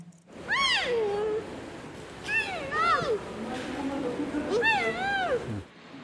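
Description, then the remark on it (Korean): Twin giant panda cubs, Korea's first, born in July and nearly 100 days old, squirm in their keepers' arms before many people, letting out high, wavering squeals in three bursts, each a quick rising-and-falling cry, over a steady low background hum. “많은 사람들 앞에 선 게 영 어색한지 연신 높고 짧은 소리를 내며 서로 파고듭니다.”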